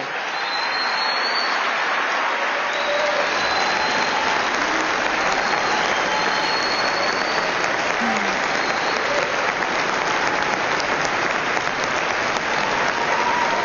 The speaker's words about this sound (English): Another time I could have cut the applause. We get it.